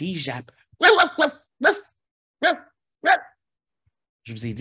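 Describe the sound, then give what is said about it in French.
A voice imitates a small dog yapping at night, waking a woman in bed: five sharp, loud barks spaced unevenly over a few seconds, with a person speaking briefly before and after. “Cette nuit-là, comme toutes les nuits, elle met sa main en bas du lit, le chien la lèche, elle s'endort, elle rentre dans le monde des rêves, puis tout d'un coup, elle se réveille en entendant le chien japper.”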